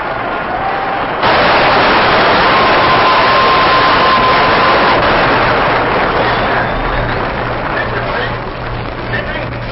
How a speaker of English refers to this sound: Now here's a round of applause for Passeau as he comes off the mound.